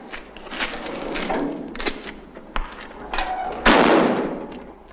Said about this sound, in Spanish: La mujer intenta abrir la puerta sin éxito.